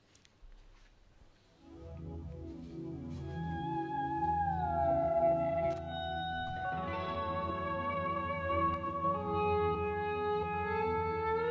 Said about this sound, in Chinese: 对，这是吉他的那个声音，前面的那个声音，在模仿的那个海鸥的叫叫声。